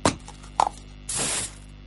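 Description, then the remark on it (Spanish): Two sharp clacks, like a rattled can, are followed by a steady hiss of Kuwait-brand aerosol spray paint lasting under half a second, fairly loud, with no talking. “Y si es en aerosol, mejor.”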